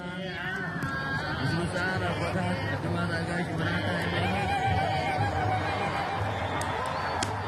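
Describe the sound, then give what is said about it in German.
A crowd in Eritrea cheers and shouts as a lit woodpile bonfire tips to the right side, a dense, steady roar of many voices that holds loud for several seconds, with scattered higher calls and laughter rising above it. “Die richtige Seite. Jubel.”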